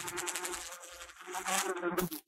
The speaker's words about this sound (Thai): What is this noise Do you recognize it Yeah t h e r e a r e flies It's fly buzzing It's the buzzing sound of flies